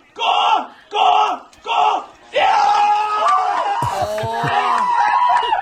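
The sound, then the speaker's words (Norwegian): A man yells three loud, rhythmic cheers in quick succession, cheering on his brother in a 500-meter speed skating race, then a roaring crowd joins in, with excited voices shouting over steady cheering noise. “Uh, heia også på, på brutter'n i går. La oss høre litt.”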